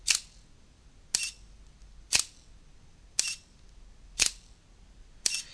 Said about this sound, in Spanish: Estoy buscando, mientras hacía estos disparos, estaba buscando el reflejo del sensor y para ver si aparentemente había alguna basura.